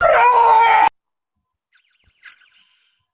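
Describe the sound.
A dog lets out one loud, harsh, screeching howl lasting under a second, mimicking the roaring whine of a Star Wars TIE fighter engine, followed by quiet and a faint, brief spoken word.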